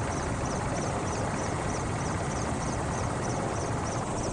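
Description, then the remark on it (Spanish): A helicopter carrying scientists, craftsmen and hunters to a lodge in a nature reserve flies with a loud, steady engine roar and rapid rotor chop, a broad unbroken rumble that fills the whole stretch with no voices. “Un grupo de científicos, artesanos y cazadores bajan del helicóptero en uno de los albergues de la Reserva Natural.”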